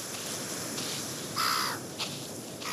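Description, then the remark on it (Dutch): Black-headed gulls, which pick worms and shells from the wet sand, calling over a steady hiss of background noise: one harsh, drawn-out squawk, then a couple of shorter, sharp calls. No one speaks. “En dat zijn kokmeeuwen. Die wormen en schelpen uit het natte zand pikken.”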